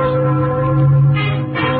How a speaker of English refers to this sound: It's Sunday morning. Oh, Those are wedding bells, darling.